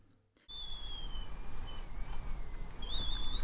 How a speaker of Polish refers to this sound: I to nie czajnik, a wiatr wieje.